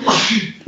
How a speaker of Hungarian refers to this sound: Egészségedre